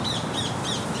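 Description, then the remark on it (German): A rose-ringed parakeet squawks three times in quick succession in a garden with fruit trees, harsh and grating calls repeating at a steady pace over a noisy outdoor background, fairly clear. “was du jetzt hörst, das ist ein Paket.”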